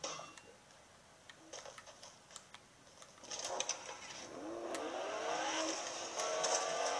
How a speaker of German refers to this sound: Auf den Bürgersteig fahren mit Auto darf man auf jeden Fall. Was ich jetzt auch mache.